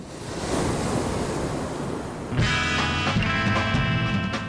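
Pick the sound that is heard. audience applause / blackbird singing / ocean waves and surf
ocean waves and surf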